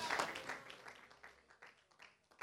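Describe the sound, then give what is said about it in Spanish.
An audience bursts into dense applause of praise to the Lord, loudest at the start, then thins over a couple of seconds into scattered, uneven claps with a brief swell at the end. “Dele un aplauso de alabanza al Señor.”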